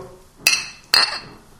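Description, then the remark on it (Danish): Glasses clink together twice during a toast, about half a second apart, each bright ringing chime fairly loud, fading quickly with no talking in between. “Ja. Skål. Skål. Skål.”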